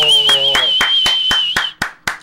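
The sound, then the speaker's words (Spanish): Steady, evenly paced clapping welcoming someone back, about nine sharp claps in a row, over a sustained high-pitched tone with a lower hum that drops out partway through, leaving the last claps alone. “Un aplauso.”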